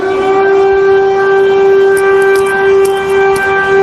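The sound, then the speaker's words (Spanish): An air-raid siren sounds continuously in the centre of Kyiv, Ukraine, a loud, steady wailing tone with strong harmonics held at one pitch throughout, with faint crackling noise underneath and no voices. “ahora mismo está sonando lo que parece ser una alarma antiaérea aquí en el centro de Kiev.”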